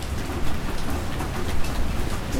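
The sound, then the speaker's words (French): Steady rain falls continuously in Wakabamba in the Andes, a dense, moderately loud hiss of drops pattering on surfaces with a low rumbling undertone, with no voices. “Voilà, il a commencé à pleuvoir à Wakabamba et c'est qui nous invite à rentrer euh, voir l'élevage de lapins.”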